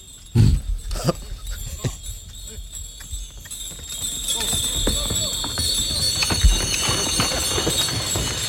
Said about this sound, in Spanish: A ver, mira, vamos a escucharlo porque se asustan un poquito las mulas cuando llegan a la rampa de la barcaza. Sí. Mira, no suena casi nada porque andan en arena y ahora cambiará el sonido. Mira, atención. Son mulas todo.